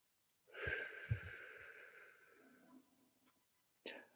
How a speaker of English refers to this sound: Okay, so that's straw breathing.